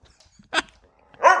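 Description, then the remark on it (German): A dog barks twice, two sharp, loud barks with a short pause between them, and no one speaking. “Der Hund!”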